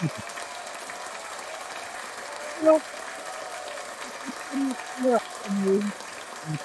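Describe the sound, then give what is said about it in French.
Steady applause runs through the whole stretch, a dense even wash of clapping, with a few short voiced whoops or calls rising above it now and then. “on doit souligner, et je vais prendre euh, le temps de donner une bonne main d'applaudissement.”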